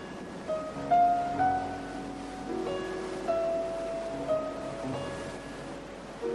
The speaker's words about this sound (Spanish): Visitaremos sus casas y encontraremos en dos de ellas el rumor del mar, pues Neruda fue un marinero de tierra firme.